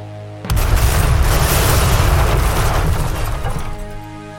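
A sudden, loud gunpowder explosion of saltpeter buried in the ground bursts in as Ming troops charge toward a castle gate, rumbling on as a sustained, deep roar for several seconds before slowly fading, with no voices present.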